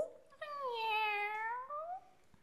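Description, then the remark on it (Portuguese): A single long, drawn-out cat meow with a rising then falling pitch, clear, lasting about two seconds with no talking. “Oh, oh gato, viste por aí um sapato?”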